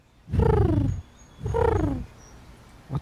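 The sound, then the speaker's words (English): A human voice imitates a pigeon in a park cooing, with two throaty, rolling coos, each lasting under a second, separated by a short pause and sounding fairly loud. “And now I bring you a pigeon in the park.”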